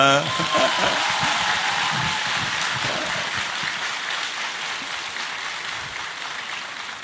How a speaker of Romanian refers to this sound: Păi uite, asta e o ploaie, nu vedeți dumneavoastră, dar mamă... O ploaie ce... de aplauze!